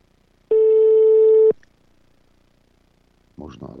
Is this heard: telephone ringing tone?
yes